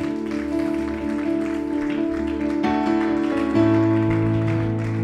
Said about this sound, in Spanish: Así que si usted sabe eso, dése un fuerte aplauso a usted.